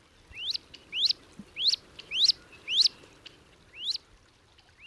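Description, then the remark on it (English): Wood ducklings, a brood of about a dozen with their mother crossing a pond, peeping: about six high, rising whistled notes in a steady, evenly spaced series, clear over a quiet outdoor background, with no talking. “So, back to that brood of a dozen little ones we saw crossing the pond.”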